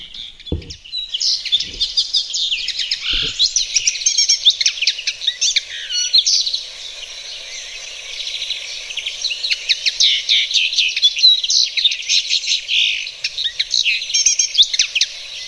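A small goldfinch-like finch sings a rapid, high, jingling twitter that runs almost without pause, bright, with a few soft low thumps near the start and no voices.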